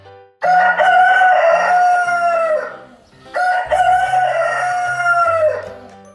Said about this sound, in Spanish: Y justo en ese momento el gallo empezó a cantar desde la viga.